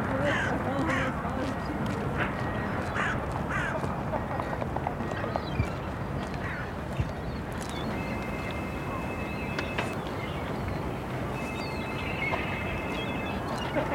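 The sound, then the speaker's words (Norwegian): Harsh, repeated crow caws ring out in short bursts over a constant rumbling background, with a couple of thin steady tones appearing toward the end. “Kråker er utrolig flotte fugler.”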